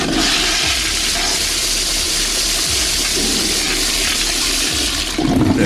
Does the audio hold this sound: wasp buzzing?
no